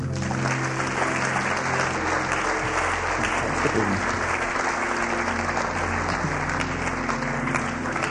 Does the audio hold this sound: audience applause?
yes